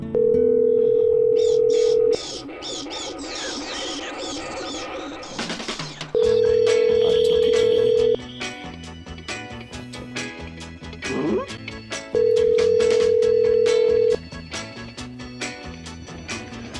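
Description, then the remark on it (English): Three steady, mid-pitched ringback tones of an outgoing phone call on Halloween night, each about two seconds long with roughly four-second gaps, sounding loudly over a busy background of indistinct voices and noise; the call reaches a voicemail box. “Reached the voicemail box of.”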